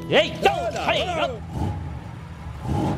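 A car engine rises and falls in pitch over a couple of quick revs, then settles into a steady, low rumbling idle that is moderately loud.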